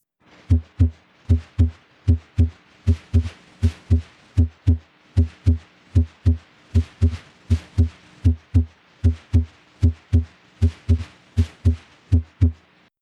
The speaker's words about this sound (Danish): Her høres S1 og S2 de produceres af et normalt fungerende hjerte